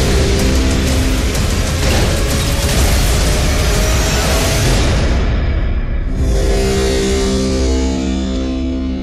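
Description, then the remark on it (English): A loud, dense soundtrack from the trailer for the film Pacific Rim, with booming explosions and heavy rumbling impacts, continuous throughout, with a brief thinning of the roar near the end before it surges back in full. “So, that was the trailer for Pacific Rim.”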